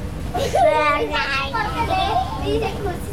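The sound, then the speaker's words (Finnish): The speaker's children chatter and call out together in a lively, continuous background hubbub, their high voices overlapping with steady playground-like energy. “Mun lapsista lähtee ääni.”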